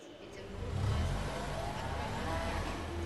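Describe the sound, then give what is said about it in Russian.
A white van's engine rumbles low and steady, swelling as it approaches and stops, then idling on without fading away. “Машина, едут! Машина. Белый фургон останавливается.”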